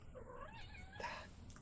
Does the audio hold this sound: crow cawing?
no